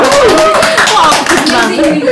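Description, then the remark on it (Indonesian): A crowd of paid audience members claps steadily, many hands producing a dense patter of sharp taps, mixed with cheerful voices and bits of laughter. “Wah, tepuk tangan dong, tepuk tangan.”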